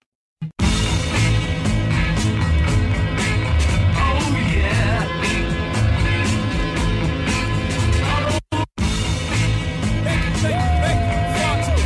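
A mashup blending rock songs with a rap track plays loudly and continuously, with a steady driving beat and full, layered instrumentation, briefly cutting out for a moment before resuming.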